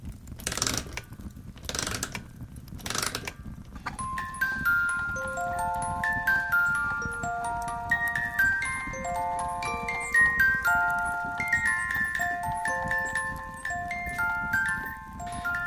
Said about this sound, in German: Heute ist das alles ein bisschen schneller und auch in einem ganz anderen Rhythmus. Selbst die Spieluhren. Hört mal.